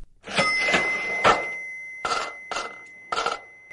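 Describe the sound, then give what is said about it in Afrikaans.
A cash register sound played on RSG radio rings up with a bright, sustained bell tone over a series of clattering mechanical bursts, fairly loud, with no voices around it. “Ons gaan nou eers gaan luister na Helen se geldwenk en hier is die kasregister.”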